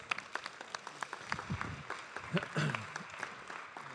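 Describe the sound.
An audience applauds, a dense patter of many hands clapping steadily throughout, with a few murmuring voices and brief vocal sounds mixed in beneath the claps.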